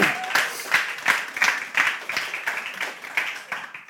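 A church audience applauds itself steadily, many hands clapping in a dense, crackling wash with a few sharper individual claps standing out, holding at a fairly even level throughout.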